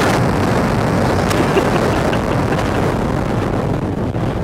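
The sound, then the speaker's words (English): A loud, continuous roaring rumble, like a big cinematic explosion or blast, fills the whole stretch with dense low-end noise and no voices. “All the explosions, all the special effects, all the action.”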